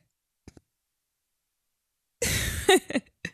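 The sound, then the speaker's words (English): A harsh, raspy cough from a person who is a little sick bursts out after near silence and a couple of faint clicks, followed by a few short throaty catches. “Parting my coughing, guys.”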